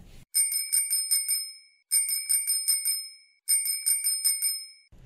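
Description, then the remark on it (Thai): A bicycle bell rings in three quick bursts of rapid trills, each a cluster of bright metallic dings, loud with short pauses between, no voices present, heard in a public park in Thailand. “ใช่แล้วค่ะคะมีมากมายหลากหลายสวนสาธารณะนะคะ ที่มีจักรยานให้เช่าหรือไม่ก็นำจักรยานไปขี่ได้ใช่ค่ะ สนุกมีความสุขแล้วเวลาได้ยินเสียงจักรยานนะะ”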